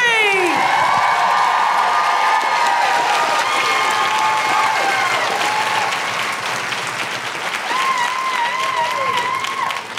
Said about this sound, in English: Um, can I just say a huge, huge round of applause as well for uh, Michael, our tour manager, and everyone here at the James Hay Theatre. and keep that applause going, only build it to end the show.